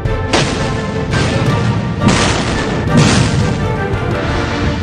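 Heavy explosions boom repeatedly over a continuous rumbling roar, with several loud blasts landing about a second apart: a heavy naval bombardment by Japanese warships, their naval guns shelling the ridge crests south of Anderson Field.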